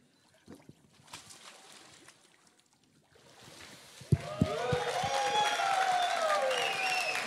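After a quiet stretch, a sudden splash of water as a person is immersed during a baptism breaks the silence, immediately followed by a crowd bursting into loud applause, cheers and whistles that carry on to the end.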